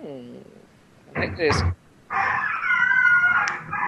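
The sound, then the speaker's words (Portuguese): A dog gives a short whining howl, then a couple of sharp barks, followed by a long, wavering howl that carries to the end. “não, mano, porta mano, um cachorro, é velho.”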